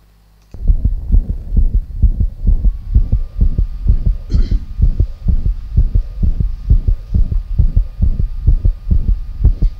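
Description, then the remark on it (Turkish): A replayed recording of a heart murmur, judged at least grade 4: loud, fast, steady heartbeat thuds, about two per second, with a whooshing hum running between beats. No one speaks. “E, üfürümleri tekrar dinletebilir misiniz demişler. Dinletebiliriz.”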